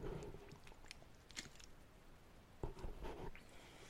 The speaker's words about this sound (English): I'm going to just take a little sippy sip right here.